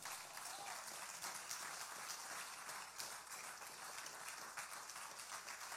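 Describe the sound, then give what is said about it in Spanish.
Loud, sustained applause from a crowd, given for God ("the one who lives and reigns") during a Spanish-language worship message, a dense steady wash of clapping that holds at an even level for several seconds without pause. “Denle ese aplauso fuerte al que vive y reina.”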